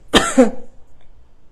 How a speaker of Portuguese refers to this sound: Opa! Que tosse, peraí.